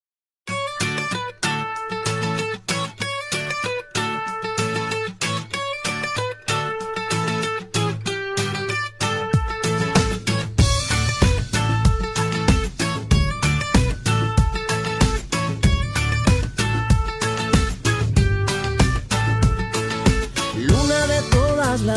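A Latin pop song plays at steady volume, opening with a light rhythmic pattern before bass and drums kick in about halfway, filling out into a fuller, driving groove. No talking over it.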